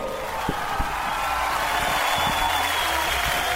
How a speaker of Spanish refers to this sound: Bienvenidos una vez más a Camer Radio. Aplausos, por favor.